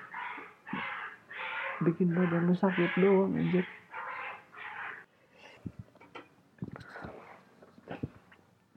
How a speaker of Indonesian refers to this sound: anjir ada kucing lagi segala berantem